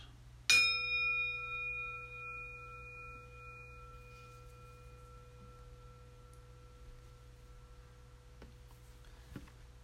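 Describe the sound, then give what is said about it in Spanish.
A single meditation bell is struck once to begin a meditation, its clear ringing tone sustaining and slowly fading over several seconds against a faint steady hum, with no talking. “Con el sonido de la campana empezamos.”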